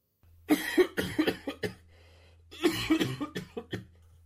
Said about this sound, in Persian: از دریچه کولر مقدار گرد و خاک بیرون زد و در مغازه پیچید چشما به سمت دریچه رفت و یعقوب به سرفه کردن افتاد